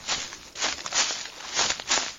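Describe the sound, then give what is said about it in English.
Rapid footsteps of pursuing humans crunch through brush and leaves behind, a steady run of rustling, scuffing strides at moderate loudness, with no voices. “Then the sounds of pursuit behind you.”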